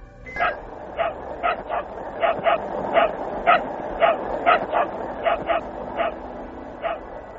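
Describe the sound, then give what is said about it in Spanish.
A dog barks repeatedly in quick, uneven bursts, some coming in pairs, over a steady hiss of background noise, with no one speaking; the dog is barking from inside the Sputnik 2 spacecraft. “Escuchemos algunos de estos ladridos.”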